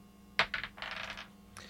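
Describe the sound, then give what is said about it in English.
Dice for a stealth roll clatter onto a hard tabletop: a sharp initial strike, a few quick bounces, then a short rattling tumble before settling on a 14, with one final light click. Fairly crisp, no voices. “Why don't you make a stealth roll? I'll give you advantage.”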